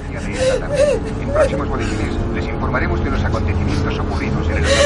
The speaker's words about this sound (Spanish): La mujer que llora va en el asiento del copiloto.